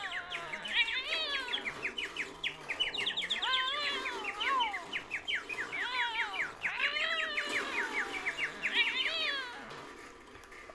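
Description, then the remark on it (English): A bird chirps rapidly and continuously, bright twittering bursts repeating throughout, with a few lower, wavering calls rising and falling beneath them. No one speaks. “Don't touch that bird!”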